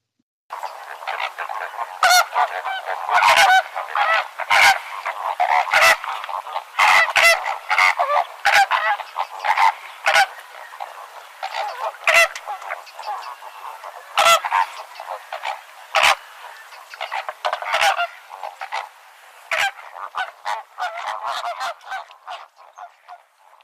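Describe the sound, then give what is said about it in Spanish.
A dense, continuous chorus of greater flamingos honking and gabbling, recorded in the field, many birds calling at once, with frequent sharp, louder honks standing out above the steady flock noise. “experiencia con esta especie, ¿no? Con el flamenco”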